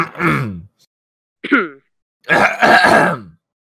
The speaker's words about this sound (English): okay, that's the last cough.